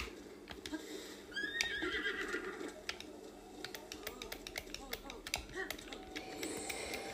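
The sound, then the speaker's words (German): A horse in a video game, being ridden, whinnies against a steady run of sharp, rhythmic hoof clatter, with scattered clicks and a low background hum throughout; a voice can be heard talking faintly underneath. “Wir brauchen einen Ausdauerbalken von dem Pferd.”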